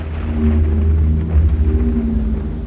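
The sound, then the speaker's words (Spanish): Steady rain water running down windows, heard from inside a dark, damp room beneath a staircase, with a low, continuous rumble and a dense wash of water noise, fairly loud, holding evenly throughout with no voices. “Ahora escuchaba el escurrir del agua de lluvia a través de sus ventanas”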